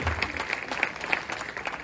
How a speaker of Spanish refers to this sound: Rápido, rápido, rápido, rápido. Corran, le presto a nuestro baterista un aplauso para él, por favor.